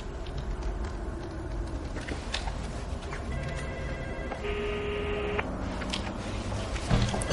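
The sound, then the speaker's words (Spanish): A phone rings with a steady electronic tone partway through, as a call is dialled on a mobile at the door of Bjurman's flat, heard over a constant background rumble like traffic. Nobody speaks. “Sonia llama a su puerta y marca en su móvil.”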